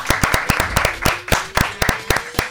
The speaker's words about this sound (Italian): Proporrei un applauso corale per, per